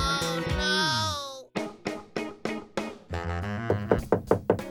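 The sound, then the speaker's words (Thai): A wavering, whining tone fades out, followed by a series of loud knocks on an unlocked door, at first spaced apart and then coming quicker and sharper at the end. “เข้ามาเข้ามา ประตูไม่ได้ล็อก”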